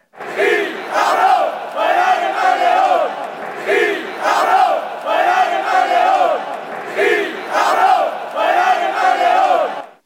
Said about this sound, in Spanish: Fue entonces cuando la grada comenzó a cargar contra los dirigentes del club madrileño, como aquí podemos escuchar.